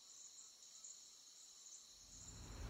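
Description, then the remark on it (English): Cicadas buzz in a steady, shrill, unbroken drone throughout, fairly loud and surrounding, with a low rumble swelling underneath toward the end. “Cicadas are singing louder than they do this time of year,”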